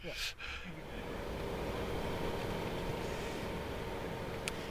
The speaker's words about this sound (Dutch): er zit een soort eh, ruis in de motor die je niet aan de binnenkant hoort, maar wel aan de buitenkant. Dus er zit een soort geluidje dat je niet helemaal doodstil bent.